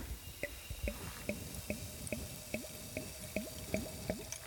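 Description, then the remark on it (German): Champagne glugs steadily from a bottle into a wheat beer glass until it is full, about ten rhythmic gurgles in quick succession, moderately quiet, with no voices. “Magst du mir dein Glas mal geben? Dann würden wir nämlich von diesem Champagner.”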